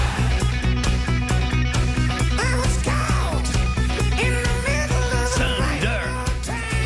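A loud hard rock song plays throughout, with a driving steady drumbeat, dense guitars and a strained, wailing lead vocal entering partway through.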